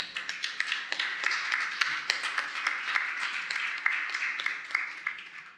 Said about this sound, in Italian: Questa è lei. Applauso.